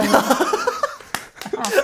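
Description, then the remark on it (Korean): A voice sings out the short syllable 'ppyam' that repeats several times with an added echo effect, the copies trailing close together, followed by a couple of sharp slaps and light laughter. “에코가 너무 적당한 타이밍에 들어갔어.”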